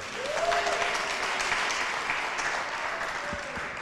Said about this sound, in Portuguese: Quem gostou disso, aplaude aí, Senhor.